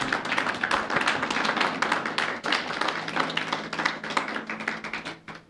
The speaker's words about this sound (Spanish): amén, gloria a Dios. Dale un aplauso a Dios.